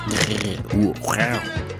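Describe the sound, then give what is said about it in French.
A person imitates a roar with the mouth: a couple of rough, growling vocal bursts that rise and fall in pitch, fairly loud, with no other sounds around them. “rugir avec la bouche, c'est pas facile.”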